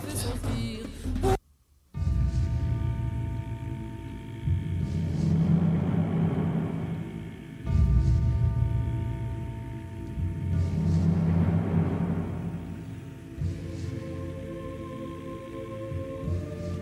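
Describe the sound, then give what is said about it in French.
A brooding orchestral passage from Scar's villain song in The Lion King: low rumbling swells and sustained droning tones that rise and fall in slow waves, with no voices, after a brief opening cut. “C'est le Roi Lion, c'est une excellente réponse. C'est Scar dans le Roi Lion.”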